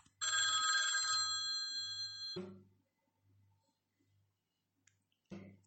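An old-style telephone bell rings loudly for about two seconds, then stops abruptly, leaving a soft low pulsing thump in the background before a brief clatter at the end.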